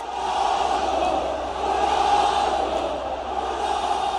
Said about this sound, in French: pas besoin de traduction, scandé par les supporters du club El Nasser dans leur stade sous une pluie de confettis et devant le joueur en tenue, maillot bleu et jaune sur les épaules.